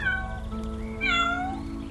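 A white kitten meows twice in quick succession, fairly loud, with bright, wavering cries over a low steady background rumble. No one speaks.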